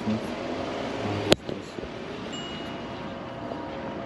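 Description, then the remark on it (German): A steady, broad roar of an airplane passing overhead behind the speaker beside a street, mixed with wind and outdoor rumble, interrupted by one sharp knock partway through. “Jetzt ist auch noch ein Flugzeug hinter mir.”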